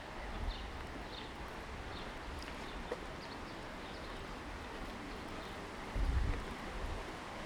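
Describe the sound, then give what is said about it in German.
A steady, even rush of water flowing in town canals in the fishermen's quarter fills the scene, constant, with a couple of soft low thumps and faint high chirps over the continuous wash. “Ich muss sagen, mir ist es bis jetzt noch nie aufgefallen, ohne die Kopfhörer im Fischerviertel, dass man wirklich tatsächlich sehr, sehr viel Wasserrauschen hört.”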